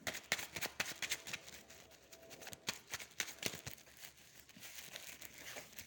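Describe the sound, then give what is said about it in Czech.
Tarot cards being handled and shuffled for a tarot reading, a steady run of crisp papery riffles, slaps and rustles at an uneven pace, with no voices. “teď už konečně jsem u vás, držím karty, eh, dívám se na vaše fotky a uvidíme teda, co nám karty řeknou.”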